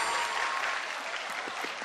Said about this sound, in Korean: 그럼 박수 부탁드리겠습니다 감사합니다